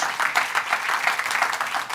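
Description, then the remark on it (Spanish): A crowd applauds the name of Jesus steadily, with dense overlapping claps filling the whole two seconds at a moderate, even level and no voices standing out. “Denle un aplauso maravilloso el nombre de Jesús.”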